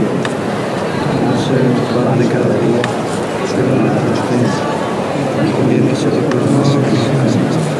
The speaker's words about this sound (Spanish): Están rezando debajo del paso mientras están realizando la levantada.